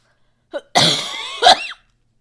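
A brief coughing fit from a person getting over a cold: a small catch, then two harsh, raspy bursts in quick succession, loud and alone with no talking.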